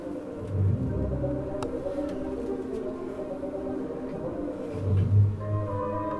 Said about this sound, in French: En fait, c'est des bassons qui jouent.